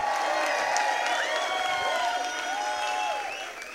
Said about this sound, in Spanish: Aleluya, dale un fuerte aplauso. Allá a las 7, emocionate, apláudele al Rey.